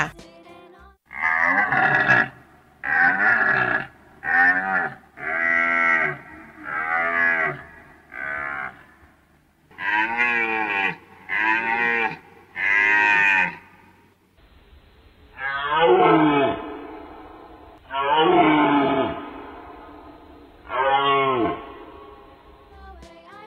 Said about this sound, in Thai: ตัวนี้เนี่ยเป็นกวางเหมือนกันค่ะ แต่เขาเป็นกวางปากขาวค่ะ พี่โลมาเคยฟังปู่โลมาเล่าให้ฟังว่า กวางปากขาวเนี่ยเป็นกวางในตำนาน ชอบอาศัยอยู่บนที่สูง เหนือระดับน้ำทะเลมาก ๆ ที่อยู่ของมันก็จะห่างไกลคนมากๆด้วยนะคะ